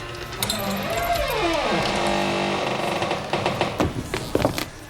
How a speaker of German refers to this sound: Auf dem Weg dorthin rief er noch einen Sergeant hinzu, der für den Waffenraum verantwortlich war. Mit einem Sicherheitsschlüssel öffnete der Polizist die schwere Tür.